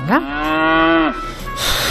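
A single long, loud cow moo rises and holds steady for about a second before trailing off, followed by faint ambient farm noise.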